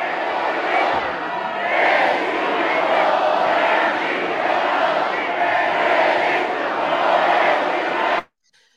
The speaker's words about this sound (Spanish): Porque mientras estaba esto del quinto informe, había guerra de porras. Escuchan.